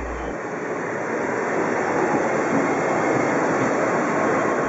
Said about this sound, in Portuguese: Quatro trens passaram enquanto ele continuava ali.